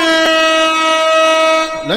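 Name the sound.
bugle horn sound effect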